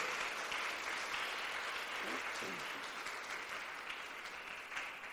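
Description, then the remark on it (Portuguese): An audience claps steadily for several seconds in applause for Jesus, a dense, even wash of many hands with a brief vocal exclamation rising faintly through the middle. “Vamos aplaudir a Jesus por isso? Vamos aplaudir a Ele?”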